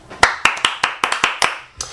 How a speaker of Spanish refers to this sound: Aplausos.